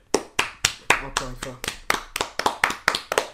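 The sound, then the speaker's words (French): Hands slap rapidly against cheeks in a steady run of about fourteen sharp, hollow pats, fairly even in loudness, with a short voiced sound breaking in partway through. “C'est bien parce que je suis complètement en train de peut euh, applaudir sur ses joues.”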